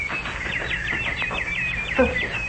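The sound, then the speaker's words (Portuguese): Small birds chirp in a rapid, busy chatter, many high tweets overlapping continuously at moderate loudness, with a brief lower call near the end. “Mas vai ser um trabalhão para fazer esses passarinhos desaparecerem.”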